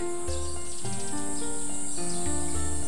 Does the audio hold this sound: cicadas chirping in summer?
yes